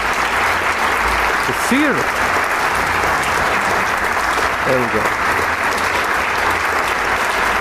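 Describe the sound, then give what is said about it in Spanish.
Sustained audience applause after an orchestral encore of a piece by Elgar, a dense steady patter of clapping that stays loud throughout, with a man's voice speaking briefly over it. “El público agradece con un aplauso estas sonadas suaves y melódicas.”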